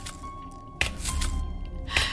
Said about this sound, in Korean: 갑자기 거실 쪽에서 저벅, 저벅 하는 발소리가 들리는 거예요. 그왜 물기 있는 맨발로 비닐장판 디뎠을 때 쫙쫙 그 붙으면서 나는 소리 있잖아요. 딱 그 소리였다니까요.